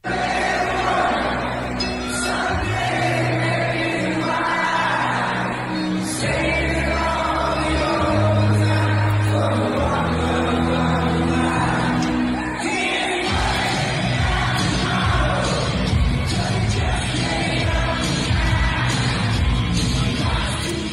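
A massive crowd of thousands at a concert at Qudos Bank Arena sings along loudly and continuously with a band, the chorus of voices merging into a dense roar over thumping bass notes, with occasional yells rising from the mass.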